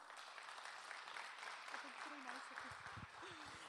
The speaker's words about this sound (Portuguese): Amém? Aplauda Jesus.